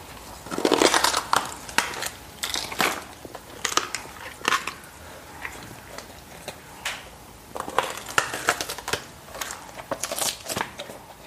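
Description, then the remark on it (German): Sharp, irregular cracking and crunching as two large animals with broad heads and strong jaw muscles gnaw and break beef rib bones, in repeated loud bursts with short pauses between, and no voices. “Die sind zum Aufbrechen von massiven Knochen gemacht.”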